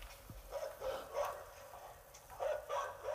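dog barking

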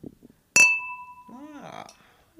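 wine glasses clinking

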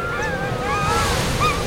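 tundra ambience recording

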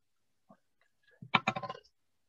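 dice being rolled

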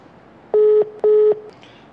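telephone call dialing tone

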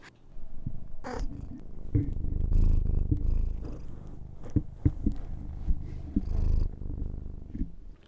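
cat purring

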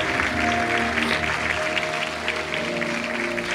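audience applauding

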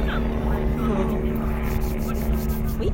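helicopters flying overhead

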